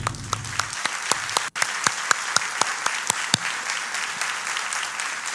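An audience applauds the team that helped the speaker, a steady, dense wash of many hands clapping with a few sharper individual claps standing out, holding at an even volume throughout with no talking over it.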